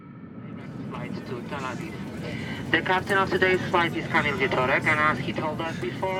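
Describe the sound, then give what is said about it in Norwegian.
A steady, low roar of airplane cabin noise on a flight headed to Israel fills the whole recording, with voices talking over the drone during the latter half. “Akkurat dette er naturligvis spilt inn på et fly, og det flyet er på vei til Israel.”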